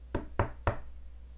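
Three firm knocks on a door, evenly spaced in quick succession, each a sharp thud with a brief woody resonance, followed by quiet. No one speaks.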